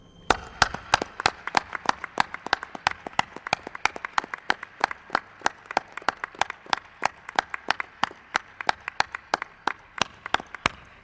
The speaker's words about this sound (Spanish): estoy seguro que es el aplauso más grande que le han dado a Rosso de Luna